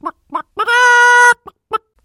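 A hen clucks: two short clucks, a drawn-out squawking cackle, then two more quick clucks, loud and clear with no talking.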